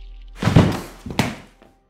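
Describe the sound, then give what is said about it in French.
A heavy, dull thud of a man landing below after falling through a window, followed by a second muffled impact a moment later and a faint knock as it settles, with no voices present. “Vous voyez là Monsieur Gardiner qui passe à travers la fenêtre et qui vous entendez un bruit”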